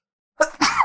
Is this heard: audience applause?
no